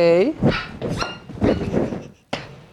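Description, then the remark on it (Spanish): A nervous dog barks several times in quick, irregular bursts, starting with a high, whiny yelp, fairly loud, amid many people, other dogs and cameras, with people's voices mixed in around it. “Y la verdad es que hay mucha gente, hay muchos perros, se pone nervioso.”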